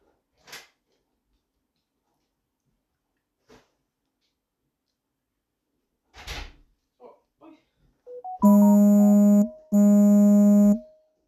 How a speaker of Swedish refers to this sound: Hördes det där? larmet från när jag öppnade dörren.